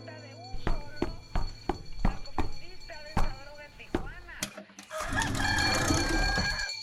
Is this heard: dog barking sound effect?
no